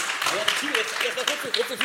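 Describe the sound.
Steady, crackling, enthusiastic applause from an audience fills the whole stretch, a dense patter of many hands, with voices talking over it throughout.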